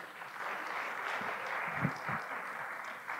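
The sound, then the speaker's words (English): A steady wash of crowd applause with many hands clapping at once, sustained and fairly loud throughout, with no voices standing out. “Give her another round of applause for them.”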